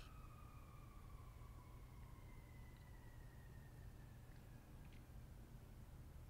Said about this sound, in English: I had a weird thought with the siren going by right now, so now you can't edit that out.